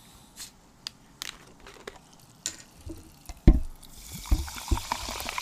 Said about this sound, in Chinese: 让我们去听一听气泡水的声音。